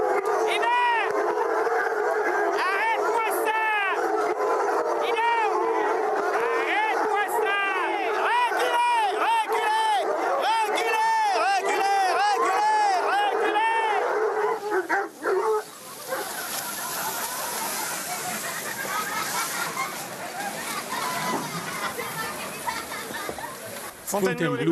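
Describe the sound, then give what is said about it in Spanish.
A pack of hounds barks and bays in a dense, overlapping clamor, loud, with yips mixed in, as each dog fights for its 400-gram ration of bones; after about fifteen seconds the barking gives way to quieter scuffling and rustling. “La lucha está apretada. Cada perro quiere su osamenta, 400 gramos cada uno.”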